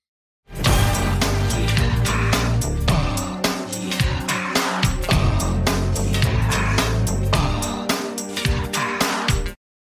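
A pop song kicks off with a punchy, steady drum beat and deep bassline, loud, playing continuously for about nine seconds with no voices over it.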